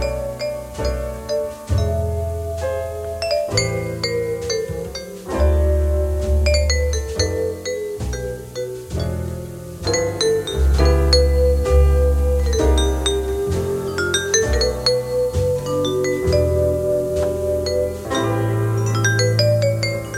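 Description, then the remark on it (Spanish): A vibraphone plays a slow, lilting Latin jazz ballad melody with ringing, sustained mallet notes over a warm bass line and soft band accompaniment, steady and fairly loud, with no voices. “era uno de los pioneros del vibráfono en el jazz latino, además de ser baterista, percusionista y compositor.”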